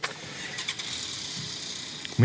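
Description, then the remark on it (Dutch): Police motorcycle engines start up amid steady outdoor traffic noise, with a low rumble swelling suddenly near the end as an engine catches and revs, while indistinct voices murmur in the background. “De motoren van de politie worden gestart.”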